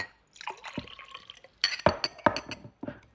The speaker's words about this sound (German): Die Leute machen alles Mögliche daneben, nicht? Die schütten sie Wasser ein. Du verstehst nicht, der will dir gerade irgendwas erzählen über den Zweiten Weltkrieg, aber du hörst nur.